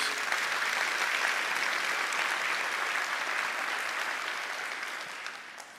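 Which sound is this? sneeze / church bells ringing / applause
applause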